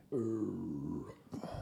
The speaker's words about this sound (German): Gesundheit.